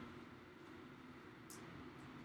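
A steady, low rumbling roar fills the scene as a train rolls by, with a brief high hiss cutting in partway through. No one speaks.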